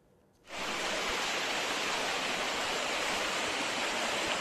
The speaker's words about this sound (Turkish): Burası Şanlıurfa Bozova. 10 gün önce felaketi yaşayan kentte yağmur yine sel oldu.